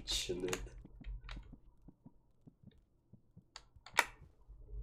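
A computer keyboard is hammered hard, with loud clattering bursts at the start and near the end and a run of sharp, irregular key strikes between them.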